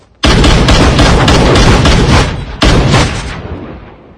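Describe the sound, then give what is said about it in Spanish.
Loud bursts of rapid gunfire, a sustained rattling volley lasting about two seconds, a brief pause, then a second shorter burst that trails off into a fading echo. No voices. The shooter just pulls the trigger, so the shots go off wildly. “Te limitas a apretar el gatillo y por eso los tiros te salen a lo loco.”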